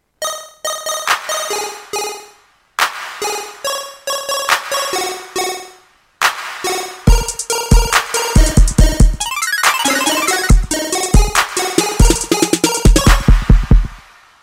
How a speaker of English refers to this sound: And then I'm also using a sound called Pack Girl in Massive. So here's what that sounds like together for the intro with the clap.